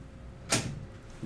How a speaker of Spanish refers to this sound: a ver, a ver, vamos a escuchar cómo cierra la puerta.